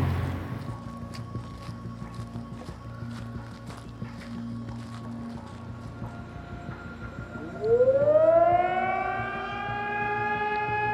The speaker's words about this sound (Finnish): nyt on ilta. Odessassa ehkä kuuluu noin kaukaa taustalla olevat öö, sireenit.